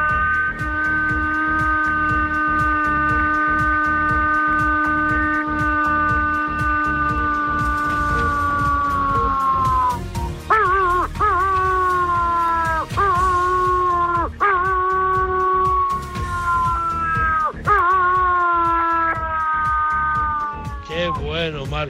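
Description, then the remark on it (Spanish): A person imitates a wolf with the kind of call used to call wolves, loud: one long, steady howl held for about ten seconds, then a run of shorter howls, each sliding downward in pitch. “Ahora te voy a hacer el aullido.”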